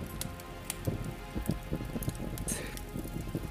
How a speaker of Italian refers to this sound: Ed è il suono del fuoco.